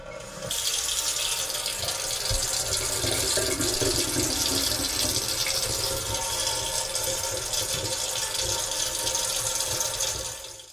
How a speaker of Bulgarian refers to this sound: Или да пускат чешмата да шурти.